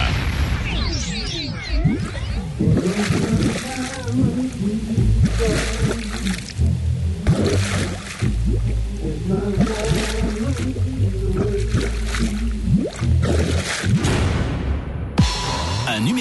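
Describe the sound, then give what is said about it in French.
A song to be guessed in a quiz plays through a murky, watery filter meant to sound as if heard underwater, its melody smeared and distorted with swooshing and bubbling textures. It runs continuously at a steady, fairly loud level. “Le, but, le but du jeu, c'est qu'on est sous l'eau. Hein. C'est le underwater euh, quiz, si on peut dire.”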